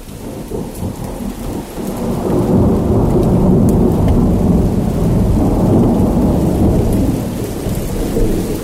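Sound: heavy rain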